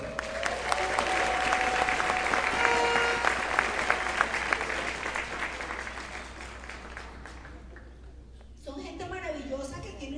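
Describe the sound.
A crowd claps steadily and loudly for several seconds at a business event, applauding the company's double diamond members, the dense patter slowly thinning out before a voice begins speaking at the end.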